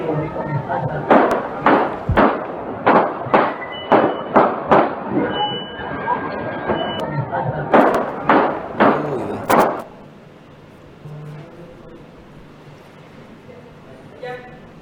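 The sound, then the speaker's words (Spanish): In video footage, a rapid series of about a dozen sharp gunshots rings out over roughly nine seconds, loud and evenly spaced, as people flee, then stops abruptly, leaving quieter background noise and faint voices. “Mínimo cinco balazos”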